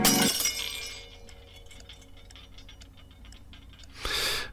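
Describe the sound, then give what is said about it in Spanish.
A light bulb in a study bursts with a sharp, bright crack, followed by scattered tinkling of glass fragments and a second loud burst of shattering near the end, with no voices. “Entonces, el foco del estudio estalló.”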